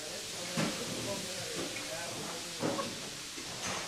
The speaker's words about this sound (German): Um 9 Uhr morgens dampft es bereits aus den Töpfen der Großküche.